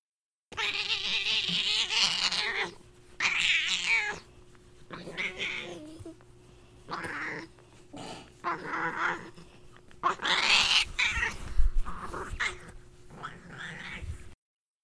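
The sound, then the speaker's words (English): A pet cat named Maud lets out a long series of strange, drawn-out yowls and caterwauls, loud, separated by brief pauses, with a steady low hum running underneath. “She makes the weirdest noises.”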